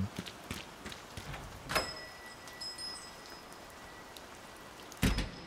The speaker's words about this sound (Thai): ทั้งที่วันนี้ฝนตก แต่ก็ไม่รู้ว่าเพราะอะไร